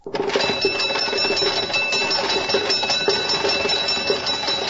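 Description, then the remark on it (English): A fire engine bell clangs continuously in rapid, ringing strokes, loud, with a dense metallic rattle underneath and no voices, as a team of horses pulls the fire engine to a fire in Manchester, England, in 1826. “Going to a fire in 1826, a team of horses pulling the fire engine of the Norwich Union Boys Firehouse.”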